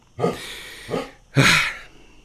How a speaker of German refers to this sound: Ich könnte jetzt im Hintergrund bellt noch ein alter weiser Riese hier. Er bestätigt das. Er bestätigt das nochmal, er untermauert nochmal.